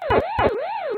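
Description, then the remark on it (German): Pac-Man arcade game sounds from someone playing the game: a buzzy electronic tone swoops up and down in a steady wail, with two quick chirpy blips at the start. Fairly loud, with no talking. “Zurück in die Uhrzeiten des Internets, zurück zu Pac-Man.”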